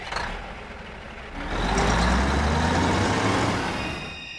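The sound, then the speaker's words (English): A big semi-trailer truck's diesel engine roars in after a quieter start, growling loudly with rising, straining tones as it accelerates, then eases slightly at the end. No one speaks. “And it's about a guy that's being chased by a semi trailer truck.”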